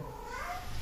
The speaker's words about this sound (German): Mein Kater spielt am Rad hier.